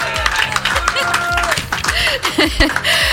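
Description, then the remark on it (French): A loud crowd in La Rochelle, France cheers and claps continuously, dense rapid applause mixed with shouting voices and whistles, with steady low rumbling thumps underneath throughout. “C'est le moment où vous pouvez crier énormément fort.”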